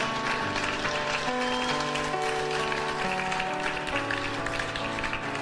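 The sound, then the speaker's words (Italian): An audience applauds steadily for Jesus for several seconds, a dense wash of clapping running beneath sustained keyboard chords that shift every second or so. “Forte questo applauso per Gesù.”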